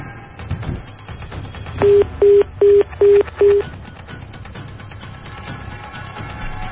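A rapid series of five short, evenly spaced electronic telephone tones as a cell phone call placed on air fails to connect, sounding over a low background murmur.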